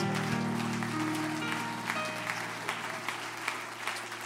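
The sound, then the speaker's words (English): An audience gives a hand clap of praise in a dense, sustained burst of applause, many hands overlapping into a steady crackling wash that thins slightly toward the end, with a low organ-like tone beneath. “One more time, give him a good hand clap of praise.”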